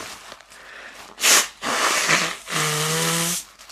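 A sudden, loud sneeze from someone with a blocked nose bursts out, followed by two longer rushing nasal blasts, the last with a buzzy, honking tone, and no talking.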